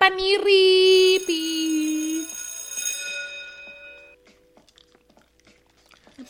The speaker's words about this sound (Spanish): Para los nuevos que estén escuchándonos, cada que suene una campanita tienen que tomar con nosotros